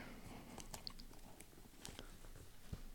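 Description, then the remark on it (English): Crisp scissor snips crunch through the stiff packaging of a clothing order in an irregular series of short cuts, with faint rustling between them and no one talking. “Definitely should have used a knife and not scissors.”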